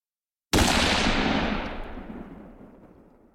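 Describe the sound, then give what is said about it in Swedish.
A single loud gunshot from a battle with Russian soldiers cracks out after a moment of silence, then its echo rolls away and fades slowly over the next few seconds. No voices are heard. “Och precis när han droppar den här one-linen så smäller det.”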